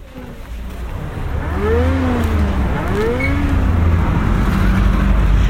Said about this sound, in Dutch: Ja, als we nu kijken wat hier allemaal rondraast, dan ruiken we het, hè? het zijn allemaal studenten die nu wegrijden in hun auto.